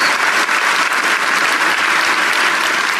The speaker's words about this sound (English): Give God praise. If you're going to clap, give Him praise. Give Him real praise.